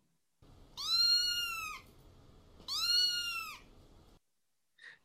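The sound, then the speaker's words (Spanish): Two drawn-out meows from a cat, fairly loud, separated by a short pause, with a faint low rumble underneath and a tiny click near the end. “Viene de un gato. Por lo tanto, podemos decir que el timbre que escuchaste es de un gato.”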